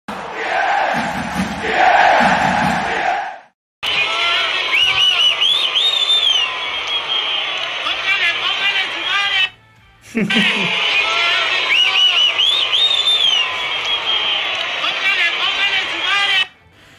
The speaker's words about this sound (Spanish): Así como lo escuchan, llegaron señores los primeros abucheos a la era Miguel Herrera en la jornada 10.